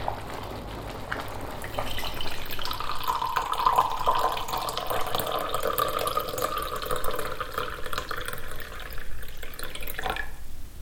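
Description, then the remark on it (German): Water splashes and sloshes steadily in a sink of warm water, with soft clinks and swirling sounds as dishes are washed by hand, continuous, ending with a brief louder splash. “Eine Spülmaschine könnte mir diese Arbeit natürlich abnehmen, aber irgendwie mag ich es auch mit den Händen im warmen Wasser zu planschen und Geschirr abzuwaschen.”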